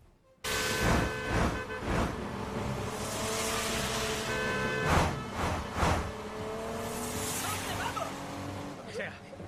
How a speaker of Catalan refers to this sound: De la mateixa versió d'aquest 2005, n'escoltam ara l'escena en què fugen eh, amb, amb el vehicle, no? Sí. Eh, és igual que la novel·la, però allà eh, no hi ha cotxes. No, en carros i... i eh, anaven en carros, però aquí fugen amb un cotxe.